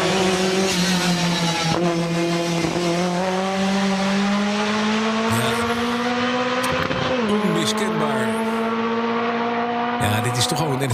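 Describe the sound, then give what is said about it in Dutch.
A Lancia Stratos, an iconic Group B rally car, engine roars continuously, its pitch climbing steadily through the revs, with a brief dip like a gear change partway through before the loud, raspy drone rises again. “Iconisch model uit de Rallysport Groep B.”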